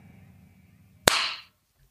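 A single sharp hand clap cracks out over a low, steady background hum, trailing off in a brief hissy wash before fading to near silence.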